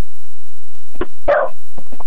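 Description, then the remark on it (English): A dog, Artini, barks a couple of times, short sharp yaps with a louder bark in the middle, followed by a few softer yips and whimpers. “Apparently, your dog agrees with me, I think.”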